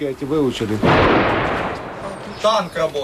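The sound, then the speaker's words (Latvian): A single heavy boom of tank fire during shelling in Ukraine bursts out between bits of talking, its loud rumble rolling and fading away over about a second and a half. “Tanks strādā.”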